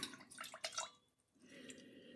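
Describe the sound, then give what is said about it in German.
Wine swirled in a glass: a few quick, soft sloshing pulses of liquid, then a brief pause and a quieter, steady swishing. Faint overall, with no talking. “So, dann schwenke ich mal das Glas.”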